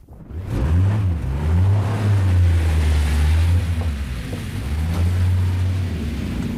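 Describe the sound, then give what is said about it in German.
A steady, loud engine drone of a car on a first test drive with an anti-radar device, low and rumbling with slight shifts in pitch as it moves along, with no one speaking. “Wir machten mit Dr. Sorge und seinem Antiradar eine erste Probefahrt.”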